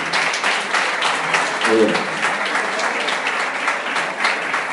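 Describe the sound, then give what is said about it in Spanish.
Loud, sustained applause from a crowd as the women give a strong round of applause to the men and boys, a dense crackle of many hands clapping steadily throughout, with a brief voice rising above it partway through. “Yo quiero ahora que la reina le dé un fuerte aplauso a los príncipes.”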